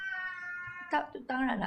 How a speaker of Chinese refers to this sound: 我们家猫咪一直在吵。